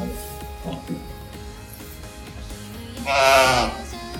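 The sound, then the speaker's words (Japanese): A very small lamb on a farm gives one loud, wavering bleat near the end, rising sharply above quieter background murmur and faint voices earlier on. “こんなにちっちゃい子羊って初めて見たかも。”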